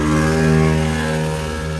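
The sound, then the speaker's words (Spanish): A loud car engine drones and revs, a steady rumbling tone with strong low harmonics that holds for about two seconds with no voices over it. “ya tira ese carro.”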